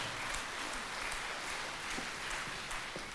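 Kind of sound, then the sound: crowd, audience applause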